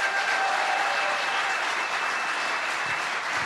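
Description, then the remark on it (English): A large audience applauds steadily to welcome a man coming up to speak, a dense wash of many hands clapping at once that holds at an even, fairly loud level throughout, with a few scattered cheers mixed in. “Um, so, would you please? uh, give it up for, for”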